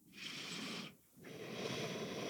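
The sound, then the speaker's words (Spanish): A slow, deep, airy yogic inhale, briefly pausing before a second steady breath continues, with no one speaking. “Entonces mi cuerpo se relaja mi respiración está muy tranquila, que esto les va a servir mucho si lo hacen en el hielo, pero es una respiración yogi donde inhalo”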